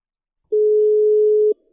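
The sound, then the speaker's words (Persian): A single steady telephone ringback tone sounds for about one second, clear, then cuts off, leaving near silence with no voices. “تلفن بوق میخورد”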